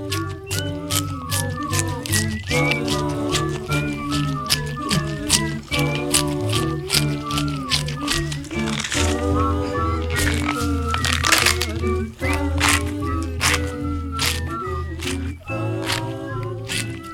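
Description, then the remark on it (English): Crisp celery crunches and tearing snaps repeat in a steady rhythm, the celery played as a percussion instrument over a loud music track with sustained bass and harmonic tones. “you hear him like these, these strange sounds, like he's tearing it apart with his bare hands, uh, and then crunching it, and uh, a lot of a lot of celery crunching on this one.”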